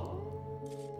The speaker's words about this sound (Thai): พอวันถัดมาหลวงพ่อก็ได้ยินเสียงหมาหอนตามมาด้วยเสียงคล้ายอะไร มาขุดที่พื้นดิน